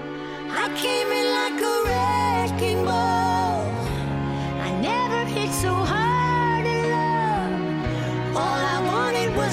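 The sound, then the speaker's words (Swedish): A cover of a pop song, a singer's latest single made together with her goddaughter, plays at full volume, a sung melody gliding over sustained chords and a steady, stepping bass line, continuous throughout with no talking. “senaste singeln som hon släpper nu då gör hon tillsammans med sin guddotter”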